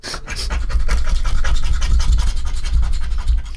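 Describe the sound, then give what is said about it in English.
A lottery ticket being scratched off fast and hard: a steady run of rapid, rasping scrapes lasting a few seconds, fairly loud, with no voices over it. “God, when you scratch it off really quickly and aggressively, the scratch and sniff smell becomes really overpowering and gross.”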